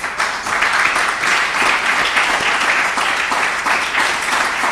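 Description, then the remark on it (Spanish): An audience at a church service breaks into steady, sustained applause for God during a sermon, many hands clapping together in a dense, even wash of sound that holds at a constant loud level throughout. “Dele un aplauso a Dios, por favor.”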